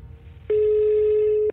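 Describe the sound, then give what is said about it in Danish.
A single steady electronic ringback tone as a woman calls the emergency line in the Capital Region of Denmark at 18:16 on 9 December 2019, lasting about one second over faint low background hum, with no one speaking. “Klokken 18.16 den 9. december 2019 ringer en kvinde til akuttelefonen i Region Hovedstaden.”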